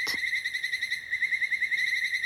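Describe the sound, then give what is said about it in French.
A leaf-shaped katydid stridulates by rubbing its two raised wings together, which act as a resonance box, in a steady, continuous high-pitched rasping trill made of rapid fine pulses, clear, with no voices and only faint background hiss. “Ses deux ailes dressées se frottent et font caisse de résonance pour produire ce chant étrange.”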